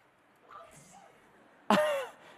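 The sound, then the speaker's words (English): A Romo toy robot lets out a single sneeze: a sudden, loud burst with a bright, tonal, slightly synthetic tail that fades within half a second, following a quiet stretch of faint murmuring sounds. “Bless you.”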